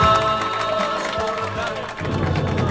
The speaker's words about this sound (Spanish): Aplauso. Aplauso.